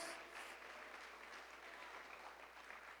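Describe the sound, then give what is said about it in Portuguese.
An audience in a church applauds to give glory to the Lord, a dense wash of many hands clapping steadily at an even level for the whole stretch, with no voices standing out above it. “Aplauda e dê um glória ao Senhor aqui nessa igreja, nesse lugar, porque Ele é maravilhoso, Ele é Deus.”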